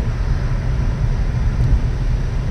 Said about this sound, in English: and you know, four lanes of traffic as we speak.